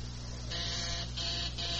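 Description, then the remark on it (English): A newly installed electric buzzer system sounds in the kitchen in three harsh, rasping bursts separated by brief gaps, over a steady low hum, with no voices. “Oh, honey, look, did, did a buzz out in the kitchen?”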